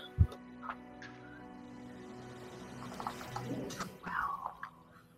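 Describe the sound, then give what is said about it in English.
Dice clack and rattle in a few quick bursts: one sharp knock at the start, a lighter tick, then a short cluster of clicks near the end. Faint overall, with no one talking. “I like this noise. You like the noise. You like the, the click clack.”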